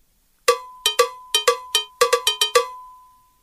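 A cowbell is struck about eleven times in a quick, slightly uneven rhythm, each bright metallic clank ringing briefly, with a lingering tone fading out after the last hit. No voices.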